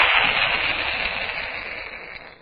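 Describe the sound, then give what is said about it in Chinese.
Three cannon shots are fired, a loud, continuous roar that fills the whole stretch, a dense rushing blast that slowly fades, with no distinct separate bangs and no voices. “一连三声大炮惊天动地。”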